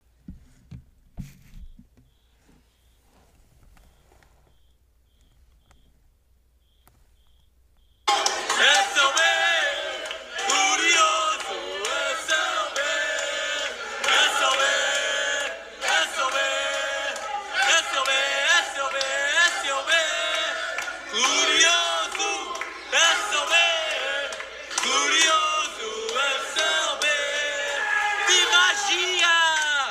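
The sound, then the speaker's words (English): After several seconds of near silence, about a hundred Benfica soccer fans at the Casa do Benfica (Sport Newark Benfica) in Newark, New Jersey, suddenly erupt into loud, sustained cheering after a Di Maria goal, with whoops and shouted voices that keep roaring without letup, recorded on a phone. “And uh, here's what it sounded like after the Di Maria goal at the Casa do Benfica.”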